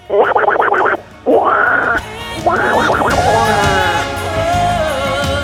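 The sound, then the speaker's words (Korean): A voice loudly imitates a duck's quack like Donald Duck: a few nasal, squawking bursts with brief gaps between them, the last one drawn out and wavering. “물 속에서는 귀여운 오리 친구들이 한가로이 수영을 즐기는 중입니다.”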